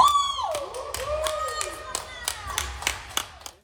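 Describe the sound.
A single voice whoops and cheers with a rising and falling shout, while sharp claps and taps ring out irregularly close by.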